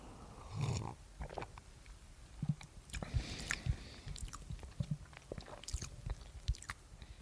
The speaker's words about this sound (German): Ja, äh, und dieser besteht jetzt aus anderen Zutaten, aber trink doch erstmal einen Schluck.